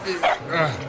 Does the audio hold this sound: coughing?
no